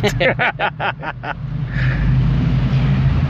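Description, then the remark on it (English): Motorcycles rumble outside: a quick series of rhythmic throttle bursts, then a steady, loud low engine drone that carries on without any talking. “As you can hear outside, uh, I guess you can hear the rolling thunder. Sorry about that, guys. But he had tacos. Yeah. Oh, you mean the motorcycles?”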